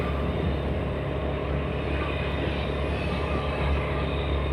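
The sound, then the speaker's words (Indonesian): A steady, loud engine rumble with rushing wind noise runs throughout as a podcaster rides a motorcycle while recording, with no voices and no breaks in the drone. “ya siapa lagi sih podcaster yang uh, sambil live report dia bikin podcast dan dia naik motor pula ya”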